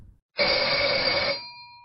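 signal or alarm, bells ringing

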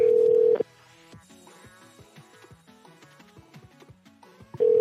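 signal or alarm, phone number being dialed

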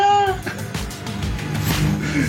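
animal, cat meowing

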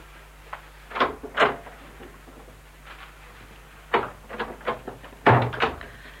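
household object, door opening and closing

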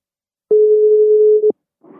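signal or alarm, telephone ringing tone

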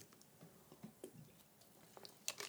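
food or drink, drinking sparkling water

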